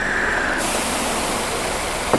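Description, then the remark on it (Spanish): A steady hiss of steam escaping from an overheated car radiator, the car pulled over in front of a small white house, broad and constant throughout, with a faint tone early on and a brief knock near the end. “Mire cómo echa humo, pero no vaya a abrir el radiador porque se le puede estallar en la cara hay que dejarlo enfriar.”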